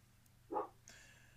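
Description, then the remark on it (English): A single short dog bark rings out, followed by faint background hiss and a soft high tone; no one speaks. “Sorry, I bet you can hear those dogs at this point, can't you?”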